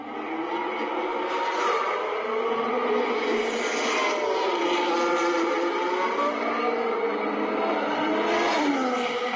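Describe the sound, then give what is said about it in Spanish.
Loud, continuous roar of Formula One single-seater cars at the Autódromo Hermanos Rodríguez during the second free practice session, engine pitches rising and falling as several cars scream past, with no pauses and no talking. “Escuchen ustedes nada más cómo se oyen ya los monoplazas rugir aquí en el Autódromo hermano Rodríguez.”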